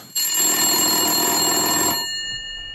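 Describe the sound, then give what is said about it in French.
A loud telephone ring: a single buzzy, metallic bell burst lasting about two seconds that cuts off, leaving faint high tones fading out. No voices. “On a en 1973 le tout premier appel depuis un téléphone cellulaire portable.”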